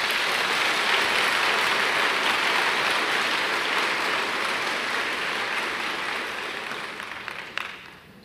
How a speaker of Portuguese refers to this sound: Aplauda Jesus.